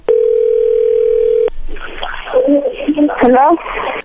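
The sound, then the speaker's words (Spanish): A steady, unbroken telephone dial tone during an outgoing call holds at one pitch for about a second and a half, then cuts off as a voice begins talking, with some higher chirpy tones near the end. “Bien, ahora vamos a marcarle a ver si te manda los chocolates a ti o se los manda alguien más, ¿ok?”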